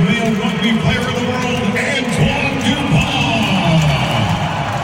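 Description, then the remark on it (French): A large crowd in Vancouver roars in a loud, sustained ovation as French star Antoine Dupont enters the Olympic sevens rugby match against the United States. A dense wash of many cheering voices holds steady for several seconds without any break. “Écoutez l'ovation lorsqu'il entre en jeu contre les États-Unis.”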